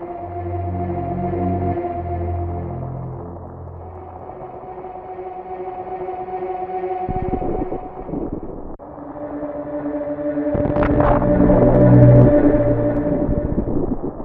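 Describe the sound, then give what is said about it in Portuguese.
Eerie ambient music from the opening of a video game set on a planet, of low, sustained droning tones, overlaid with a dense crackling patter of sound effects like hail and stones falling, swelling louder toward the end with no voices. “que tá no planeta Zebes, a forma que é que eles conseguiram colocar o clima, mano, na música, aqueles barulho meio de tipo, tem um granizo caindo, aqueles efeitos sonoros, tipo de umas pedras.”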